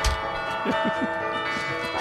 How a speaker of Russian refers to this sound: Может быть, зарядим этим колокольным звоном ваш чай?